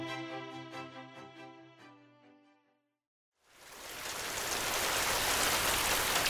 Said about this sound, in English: Did I hear rain? Yes.